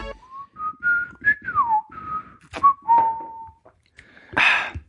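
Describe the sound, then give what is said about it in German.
Someone whistles the theme tune of the old TV series Alf: a run of clear, sustained mid-pitched notes that step and glide up and down, ending with a short breathy, noisy burst. “Wieso hat man von so steinalten Serien, die man ewig nicht mehr gehört hat, diese ganzen Melodien noch im Kopf?”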